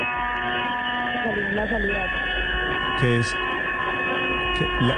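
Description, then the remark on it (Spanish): Loud crowd shouting and general commotion, several raised voices overlapping, over a steady droning hum that continues throughout. “Le, le pregunto, la bulla no nos deja oír.”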